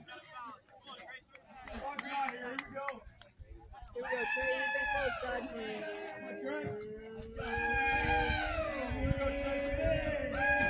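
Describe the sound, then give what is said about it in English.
A baseball team chants a war chant together from the dugout during a game, in long, drawn-out rising and falling cries that repeat for several seconds, fairly loud over background crowd chatter. “Hawks got a little war chant going out of the dugout.”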